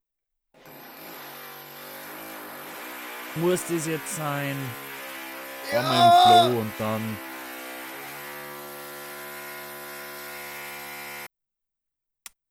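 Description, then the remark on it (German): An electric drill whines steadily and loudly for about ten seconds, boring a hole, while two people briefly exchange a few words over it before the motor cuts off. “Warte, ich gerne mal kurz ein Loch bohren.”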